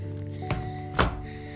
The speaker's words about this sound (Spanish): Perdonad por el sonido que estáis oyendo, pero es que estoy envolvido estoy envolviendo mi línea braille con una, con una bolsita ya que me están sonando mucho las manos y no quiero que se me estropee